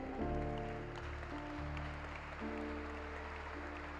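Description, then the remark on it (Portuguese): An audience applauds in a steady, continuous wash of clapping for about four seconds, while sustained keyboard chords shift underneath the noise. “Vamos aplaudir mesmo.”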